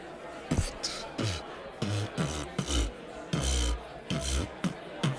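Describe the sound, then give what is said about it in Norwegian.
A voice beatboxes on a Radio Nova breakfast show, trading deep, thumping bass kicks with sharp, hissing snare and hi-hat sounds for several seconds, loud and unaccompanied. “Hei, du, jeg har begynt med beatboxing i det siste. Har du lyst til å høre?”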